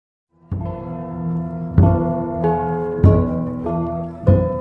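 A gong ensemble plays, with ringing, sustained metallic tones layered together and fresh strikes landing roughly every second, each bloom swelling and decaying into the others. Loud and close, no voices.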